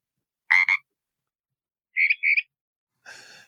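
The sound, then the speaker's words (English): A Pacific tree frog gives a crisp two-part ribbit, then after a pause a mockingbird copies it with a similar, more tonal two-note call; a raspier croak-like burst follows at the end. “The first sound was the ribbit call of the Pacific tree frog. The second one was a mockingbird mimicking the Pacific tree frog.”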